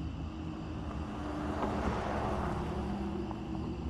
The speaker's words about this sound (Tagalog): Nang biglang may dumaan na kotse.